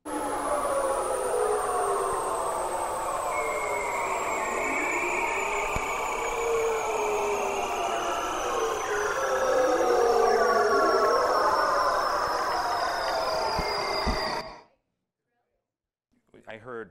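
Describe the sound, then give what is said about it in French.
Seal courtship calls: layered, gliding whistles and long descending trills overlap steadily for about fourteen seconds, loud and echoing as if underwater, then cut off abruptly into near silence. “Ce sont en fait les phoques. Et plus précisément, c'est lié à leur parade nuptiale.”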